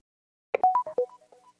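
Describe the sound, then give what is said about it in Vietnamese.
A phone call suddenly cuts off with a quick run of short electronic beeps, clear at first, then tapering off into quieter blips over about a second. No voices. “Đột nhiên kết nối điện thoại bị ngắt”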